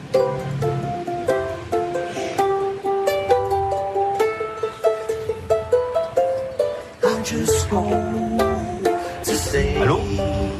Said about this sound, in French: On, en écoute peut-être un, extrait parce que le ukulélé, ça nous parle forcément, mais vous réadaptez euh, quelques chansons.